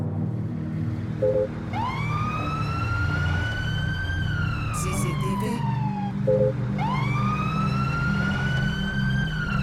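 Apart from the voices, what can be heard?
emergency vehicle siren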